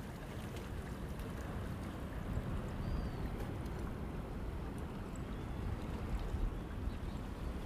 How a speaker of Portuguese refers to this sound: Escutem um pouquinho o barulhinho do mar, ó.